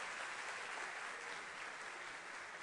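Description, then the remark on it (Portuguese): Steady applause from an audience for the candidates for a baptism taking place the next Sunday, a dense wash of many hands clapping at an even level throughout, with no distinct individual claps standing out and no voices above it. “Vamos aplaudi-los agora?”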